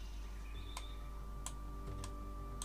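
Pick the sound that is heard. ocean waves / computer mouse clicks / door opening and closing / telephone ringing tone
computer mouse clicks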